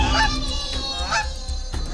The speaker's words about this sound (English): I will send those geese straight to hell.